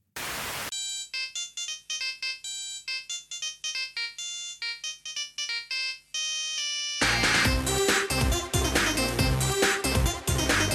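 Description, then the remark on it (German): A bright, synthetic mobile phone ringtone from a Jamba TV advert plays a quick bouncy melody of short beeping notes, then bursts into a loud, dense electronic music section near the end; no one speaks. “Jamba pflastert damals gemeinsam mit Konkurrenten wie Zed praktisch jede freie Werbefläche auf den Sendern zu mit ihrer Werbung für Nacktscanner, Klingeltöne und Co.”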